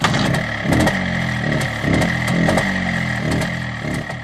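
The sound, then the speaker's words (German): A two-stroke MZ motorcycle engine, built in Zschopau, runs with a raspy, buzzing tone, its pitch rising and falling in repeated short revs about once a second. No voices. “Ab 1956 wird für die Feuerstühle aus Tschopau der Name MZ eingeführt. MZ wie Motorradwerk Tschopau.”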